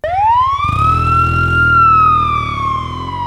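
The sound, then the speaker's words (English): A police motorcycle siren wails up sharply and then holds a long, slowly falling tone, loud, over a low engine rumble with no voices; a police motorcycle in darkness, its red and blue lights coming on as a car speeds by it. “They speed by a police motorcycle, shrouded in darkness. The red and blue lights immediately come on.”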